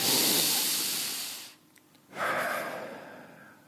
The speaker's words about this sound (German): Er sagt, ähm, ich habe eine Atemtechnik entwickelt, die mich die Kälte aushalten lässt, die man trainieren kann. Sie geht so 30 bis 40 Mal tief einatmen und loslassen. Kein aktives Ausatmen.